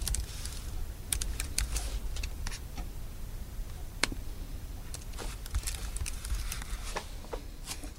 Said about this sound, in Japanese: 今、ちょっと無音になっちゃいました。今、パスワードを入力しています。あの、これはね、絶対に言えないので、あの、入力しましたよ。